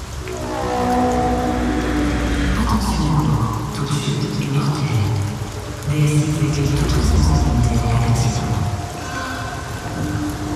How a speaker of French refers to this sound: Cette nuit encore, la pluie est rouillée, lourde, corrosive. Quand le ciel nous chie dessus comme ça, sortir sans parapluie, c'est presque du suicide.